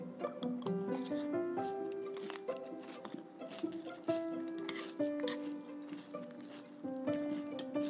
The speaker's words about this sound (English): Each one of those crunching sounds mm, represents pure delight.